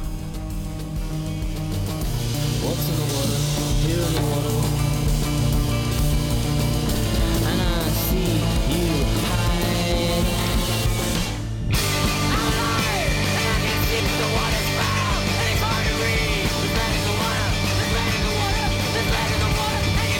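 A loud, dense experimental rock track plays steadily throughout, with a wall of distorted sustained tones and shouted vocal-like sounds, briefly cutting out for an instant midway before surging back.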